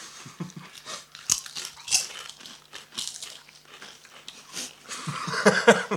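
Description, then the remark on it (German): Crisp crunching of potato chips being chewed, a steady run of brittle snaps and crackles with some bag crinkling, growing busier toward the end. “Das sind wir, essen Chips.”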